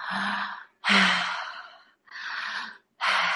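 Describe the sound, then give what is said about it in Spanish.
Deep, audible breaths through an open mouth during tantric breathing practice, fairly loud, in a quick steady rhythm of four airy breaths alternating between inhaling and exhaling with short pauses, no talking. “Vamos a practicar la respiración tántrica que es por la boca. Abriendo la boca vas a inhalar y exhalar así.”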